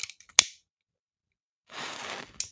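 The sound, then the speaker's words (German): A lighter is flicked to light a candle: a sharp click, a short silence, then a soft rasping hiss as it catches, ending with another quick click. No voices. “Feuerzeug, das hilft ja auch, oder?”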